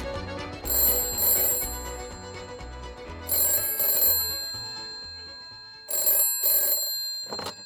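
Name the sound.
telephone ringing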